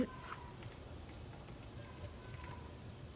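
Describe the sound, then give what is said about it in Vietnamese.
A steady, soft hiss of steam rising from a boiling pot of bánh chưng (Vietnamese rice cakes) during Tết in Hanoi, while it rains, with faint crackling and bubbling textures running continuously throughout and no voices. “Còn tiếng bốc lên của hơi nước nữa à, à, Thử mở ra check xem nào Wow Nước đang sôi các bạn ơi Oh my god Phải hết vào mặt tôi Cái này sung hơi luôn Oh my god Ok um, tớ thì đang ờ, trong nồi bánh trưng vì trời đang mưa”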